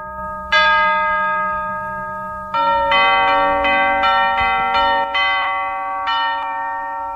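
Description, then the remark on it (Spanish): Bright chiming bells ring out a festive Christmas carol (villancico) played from the studios at Christmas, a series of clear strikes with long shimmering overtones that overlap and sustain, loud with no voices. “Andresito César Gentil me regala desde estudios un villancico porque estamos en Navidad.”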